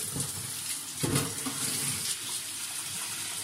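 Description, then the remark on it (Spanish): Tap water runs steadily into a rice pot being rinsed during cooking, a continuous splashing rinse with a brief surge of louder sloshing partway through; no one speaks. “Sorry que estoy enjuagando el agua olla la arroz.”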